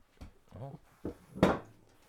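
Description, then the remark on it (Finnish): An object gets knocked over by a dog, giving one sharp clatter after a few soft, indistinct sounds that could be a muffled voice. “Tuota, Koira kaataa täällä.”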